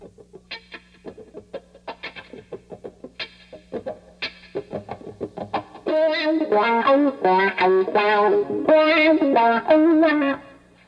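An electric guitar song intro: choppy, clucking muted strums for the first half, then the guitar swells into loud, dense, distorted sustained chords. No one talks over it.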